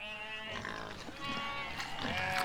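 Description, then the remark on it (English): Pigs make a steady run of loud, high-pitched squealing cries that overlap continuously for a couple of seconds, with rougher grunting noises mixed underneath and no talking. “have you given yeah. those pigs back yet”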